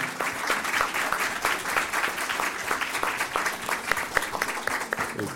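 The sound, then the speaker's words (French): A crowd at a trade fair applauds the speakers steadily, dense overlapping claps forming a continuous patter that holds at an even level for several seconds without anyone speaking. “Je pense qu'on peut applaudir nos intervenants également.”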